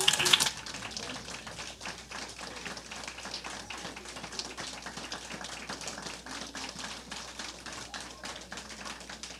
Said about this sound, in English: So I want you to stand up and clap as hard as you can and welcome